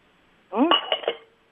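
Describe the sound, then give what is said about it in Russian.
A cup clatters after being dropped by someone on a caller's line, giving a short burst of clinks and rattles over a thin, band-limited phone line, with a brief voiced sound at the start. “Так, ну кто-то там э, уронил чашку.”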